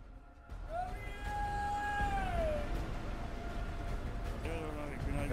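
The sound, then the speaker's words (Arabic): A long, drawn-out cat meow rises and slowly falls, followed by a shorter meow near the end, heard over a steady bed of street noise and murmuring voices in a square full of vehicles, with traffic signals, car horns, men talking loudly and a simit seller. “صوت إشارة المرور بوق السيارات رجال يتحدثون بأصوات عالية صوت بائع السميد وصوت قطط”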